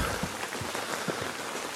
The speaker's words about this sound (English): It's the sound of uh, rain coming down on a tent.